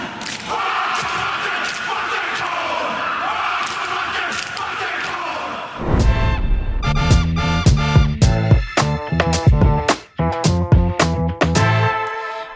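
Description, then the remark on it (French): A roaring stadium crowd gives way to a rugby team's haka: loud, rhythmic chanted shouts from many male voices, punctuated by heavy stomps and chest slaps in a steady driving beat. “Et pour le kiff, on se quitte sur un petit AK.”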